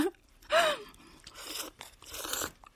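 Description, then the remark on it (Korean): Wet chewing and slurping of soggy, swollen noodles in a few bursts, with a short vocal murmur at the start and crunchy mouth sounds between quiet pauses. “제때 먹지 불어 터진 걸 먹냐?”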